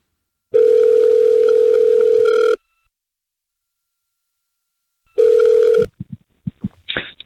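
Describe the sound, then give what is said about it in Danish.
A loud, steady telephone tone sounds for about two seconds while a call is being placed, goes silent for a few seconds, then starts again before cutting off into a quick series of clicks and line noises. “Jamen lad os da prøve at, øh, lad os da prøve at ringe til ham.”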